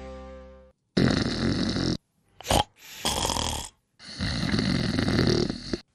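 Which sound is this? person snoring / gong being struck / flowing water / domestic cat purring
person snoring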